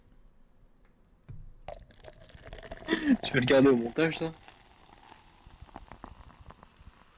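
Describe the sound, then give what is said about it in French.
Soft crackling fizz of a freshly opened Monster energy drink can, a steady patter of tiny pops that continues while someone speaks briefly in the middle. “je vais vous faire une petite, euh, une petite session de, de ASMR avec, euh, avec ma monster. Écoutez ce bruit.”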